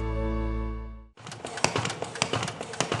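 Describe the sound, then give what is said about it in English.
A paper folding machine at Hope for the Heart runs with a dense mechanical whir punctuated by quick, irregular clacks, starting abruptly after a sustained tonal hum fades out. It is preparing hundreds of short biblical resources to send to prisoners around the country. “That's our folding machine preparing hundreds of our short biblical resources to send to prisoners around the country.”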